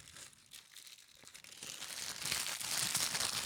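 Crinkling of a brown wax paper snack wrapper holding a brownie, in a studio, a dense run of crisp rustles and crackles that builds louder over a few seconds with no talking.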